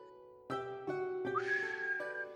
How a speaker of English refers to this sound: such a sad whistle. I, I can't whistle. really I can't whistle, either.